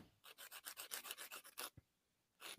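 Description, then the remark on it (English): A fingernail being filed in quick, steady back-and-forth strokes, a soft raspy scratching repeated about ten times, then a brief pause before one more stroke. “What is that noise? Sorry, I'm doing something to my nail.”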